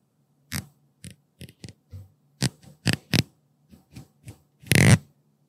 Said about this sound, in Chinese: 你是用指甲拨吗？ 我是用手指。 手指会不会是梳子啊？那种跟 答对，这个就是手拨梳子的声音。因为我觉得它很疗愈，你们不觉得吗？就是还有一种很疗愈的感觉。